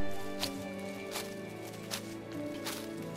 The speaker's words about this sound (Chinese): 周围除了脚步声之外，还有另外的脚步声。他走一步，那个声音也动一步。迪里停下来的时候，这个声音就不见了。